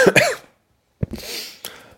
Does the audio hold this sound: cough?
yes